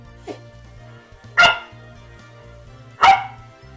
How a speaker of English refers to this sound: the coggy doggy basically barks a bit and then pushes the pumpkin around on the floor. Here's a clip that perfectly illustrates the story for our podcast listeners.